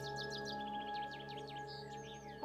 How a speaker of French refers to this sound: Là, je remonte un sentier plein de sable et vous entendez les oiseaux qui nous ravissent les oreilles.